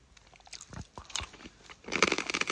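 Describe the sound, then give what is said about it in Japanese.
Crisp crunching of a Japanese rice cracker (senbei) being bitten and chewed, with several sharp cracks early on and a louder burst of dense crunching near the end, no talking. “せんべい食っててもいいんだよ”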